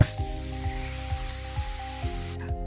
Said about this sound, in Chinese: 哦，大象听到了，他赶紧吸满了水，跟着菲尼斯的指示。冲向了火场，开始喷水，喷水，喷水，喷水。